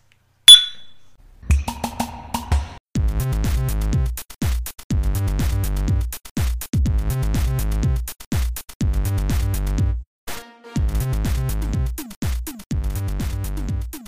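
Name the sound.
glasses clinking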